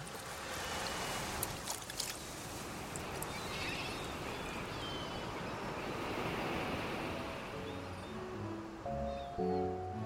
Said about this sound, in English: Few of them ever walked down to the beach again, and those that did found only birds, the wind, and the waves.